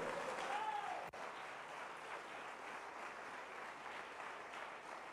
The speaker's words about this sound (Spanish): Dele palmas a Cristo.